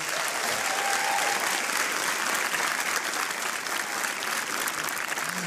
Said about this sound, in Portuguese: Uma salva de palmas para a CEPIDE.